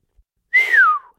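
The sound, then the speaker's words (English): A single clear whistle from a person, one smooth tone that slides downward in pitch over about half a second, heard alone. “a countess, whistled Ned Winsett”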